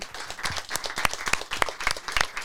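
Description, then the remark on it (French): A crowd applauds for an artist, a dense wash of clapping with sharper individual claps standing out every few beats, moderately loud and without any talking over it. “…, faites du bruit s'il vous plaît pour lui.”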